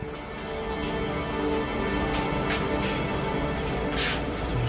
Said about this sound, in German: da ist der Zug wieder. So, weiter geht die Fahrt.